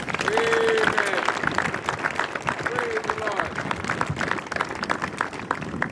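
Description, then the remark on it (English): An audience breaks into a steady round of applause for the visiting Kingdom Sports group, many hands clapping densely for several seconds, with a couple of brief whoops and crowd voices rising over the clatter. “Um, so, guys, would you give uh, Kingdom Sports and these guys just a round of applause for coming?”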